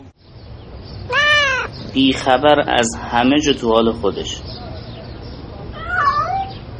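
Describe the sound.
A cat meows repeatedly, close and fairly loud: one call, then a rapid burst of several meows, and a final softer one after a pause. A person speaks in the background.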